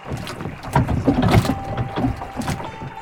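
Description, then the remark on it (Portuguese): A rowboat knocks against something in the water, with several dull hollow bumps and sloshing splashes at an uneven pace, with no one talking. “E quando um barco vazio bate em você?”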